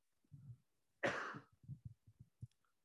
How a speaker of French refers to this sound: Excuse-moi, il faut que je tousse.